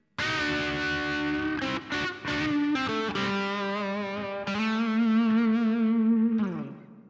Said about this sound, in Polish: Jingle był, jingle był.